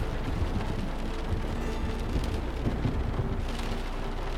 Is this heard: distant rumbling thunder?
yes